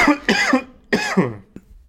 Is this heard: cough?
yes